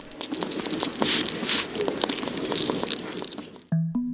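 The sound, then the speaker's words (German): A hedgehog snuffling and rooting about, with busy, irregular crunchy rustling and soft crackles throughout, cut off abruptly by a brief steady tone at the end. “Als kleiner Trost haben wir hier noch ein bisschen Igel-Schnaufen aus dem Internet zum Anhören.”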